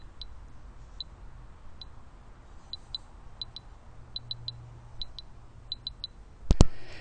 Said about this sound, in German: Das ist der Ton für eine, einen elektronischen Kompass, so nenne ich das mal. Das heißt, mir wird die Richtung damit angezeigt.